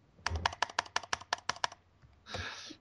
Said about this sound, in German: ich begrüße zunächst dieses Geklicke schon wieder, ne? Ich, ich tippe nichts. Ja, aber die Maus klickt.